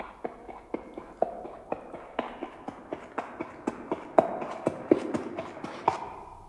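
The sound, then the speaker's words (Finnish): Donkey hooves clip-clop at a steady walking pace, a long run of sharp, evenly spaced knocks, moderately loud, with no voices; a donkey driver is carrying dead bodies to the house of the dead. “Ja löysin aasinajajan, joka suostui kuljettamaan ruumiit kuolemantaloon.”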